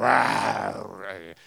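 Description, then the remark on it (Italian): A man's voice imitates a lion's roar as part of a performance of imitations, one loud, sustained, rough bellow that gradually falls in pitch and fades out after a little over a second. “dopo aver fatto tutte le, le, dire, le imitazioni, cantato pezzi di opera lirica, eccetera, eccetera, a un certo punto dice, che ne so, questo è il ruggito del leone”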